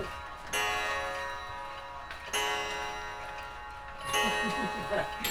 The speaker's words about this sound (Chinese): 这是一家传统的钟表行，走进来的时候正好遇到了整点报时。你听到滴滴叨叨的声音，都是时钟们的声音。